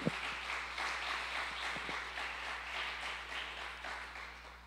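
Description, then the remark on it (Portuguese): A crowd applauds for Jesus steadily for several seconds, a dense wash of many overlapping hand claps at a fairly even level, with a few sharper individual claps standing out near the start. “Dá um aplauso a Ele então, em nome de Jesus.”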